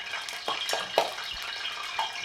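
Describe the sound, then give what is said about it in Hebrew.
Hot oil sizzles with a steady hiss after water was poured into it. Irregular crackles and pops break through. The sound is moderately loud, with no voices. “השמן. שפכת מים לתוך השמן?”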